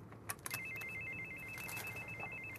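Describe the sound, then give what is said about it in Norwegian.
A telephone rings at the Veterans' Association for the Injured in International Operations, which Afghanistan veterans call, with a steady, high-pitched electronic trill that starts after a couple of short clicks and continues unbroken over a low background hum. No one speaks. “Stadig flere Afghanistan-veteraner ringer til ham.”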